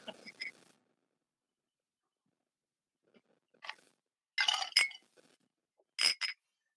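Glasses clink together in a toast in a few separate bursts, sharp and ringing, fairly loud, with short quiet gaps between each round of clinks.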